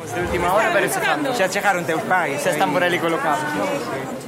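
crowd chatter

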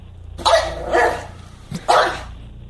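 pug dog barking

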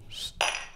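champagne glasses clinking

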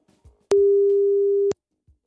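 telephone ringing tone

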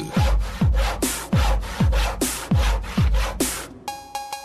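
handsaw sawing through wood

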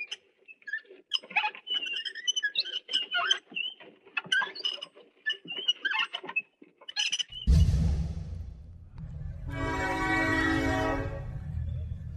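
train passing with horn

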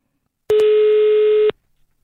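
telephone call ringing tone

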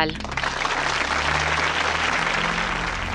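canned applause sound effect

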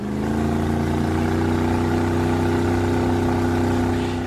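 boat engine

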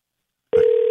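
telephone ringing tone

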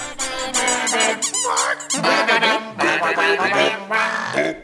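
rubber duck squeaking

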